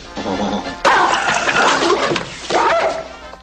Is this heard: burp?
no